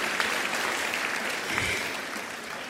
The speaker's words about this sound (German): Da bin ich hier. Danke, Mama, für, den Applaus.